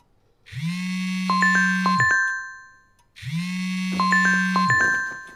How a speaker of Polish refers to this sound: Telefon zadzwonił zaraz po ósmej.